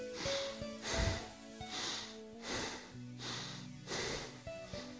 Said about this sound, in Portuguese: Vamos fazer respirações inspirando e expirando pelas narinas, mas não tão lentamente, um pouco mais rápido assim. Inspira, expira. Nesse ritmo, inspira, expira.